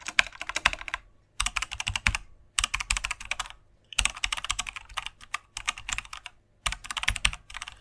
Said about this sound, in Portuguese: Bom, este som eu penso que as pessoas eh, perceberam, mas é basicamente eh, um teclado. Portanto, esse é, é, é um teclado.